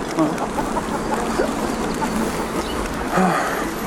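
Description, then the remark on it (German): A few faint, brief bird chirps sound intermittently over a steady rushing wash of water from a fountain, outdoors at Württemberg-Platz. “Ein, ein Springbrunnen, ein Vogel, der zwitschert.”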